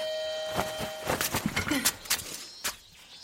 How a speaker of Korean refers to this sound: 아, 누나, 소리 안 들려? 무슨 소리? 아, 매미 소리. 아. 그거야 뭐 여름이니까. 우리 처음 만날 때부터 났어 매미 소리. 아, 무슨 말이야? 아 매미 소리가 너무 시끄러워.